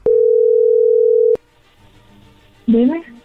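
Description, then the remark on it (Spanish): A telephone dial tone as a call is being placed: one loud, steady, mid-pitched beep holding for about a second and a half, then a quiet pause before a voice briefly begins speaking. “Ahí le estamos marcando. Ok, vamos a llamarle.”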